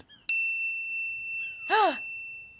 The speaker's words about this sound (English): You hear a slight bell in the back of your head.